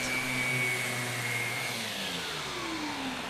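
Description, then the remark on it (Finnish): A power sander doing fine sanding of icon bases in a workshop grinds away without pause, its motor giving a loud, steady whine over a rough droning hum, the pitch sagging slightly as it bears down. No voices are heard. “Se oli tuommoista aika hienovaraista hiontaa tosiaan, että Joo.”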